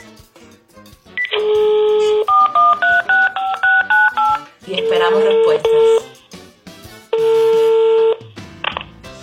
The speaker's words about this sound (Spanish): así que nuestro teléfono marca los números.